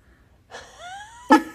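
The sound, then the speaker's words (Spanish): A voice imitates a single sneeze, mimicking people who sneeze when they climax: a breathy, rising "ah" builds for under a second, then snaps into one sharp, loud burst before fading out. No other sounds accompany it. “Yo, miren que yo he visto, eh, creo que fue un documental de Netflix, que hay personas que cuando se vienen estornudan.”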